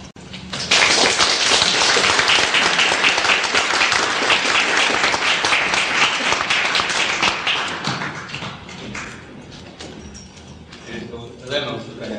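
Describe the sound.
A crowd bursts into loud, dense applause welcoming the lecturer Takaaki Yoshimoto. It holds steady for about nine seconds, then thins out and fades, with a voice starting up as the clapping dies away.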